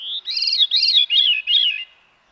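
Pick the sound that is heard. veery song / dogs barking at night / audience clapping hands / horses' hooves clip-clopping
veery song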